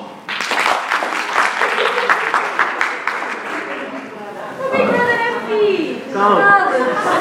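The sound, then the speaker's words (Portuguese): An audience, asked to clap if they don't follow Big Brother, claps in a dense, steady patter of many hands for several seconds, then the applause thins as a mix of excited voices and chatter takes over. “As pessoas que escutem Big nada, batam lá palmas.”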